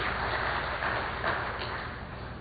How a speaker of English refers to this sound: That was good. That was good clapping.